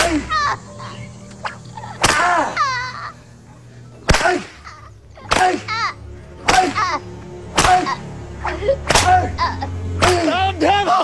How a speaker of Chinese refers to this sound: 法沙是暴怒，抢来鞭子使劲抽打，每一鞭下去都能看到空中飞溅的血滴。